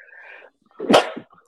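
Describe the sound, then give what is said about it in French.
A single sharp sneeze from allergies bursts out, loud and brief, preceded by a soft breathy intake with a faint hum before it. “Oh, à tes souhaits.”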